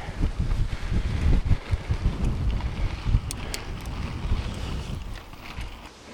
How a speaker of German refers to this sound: Und der Wind steigt wieder an. Äh, und der Wind kommt wieder.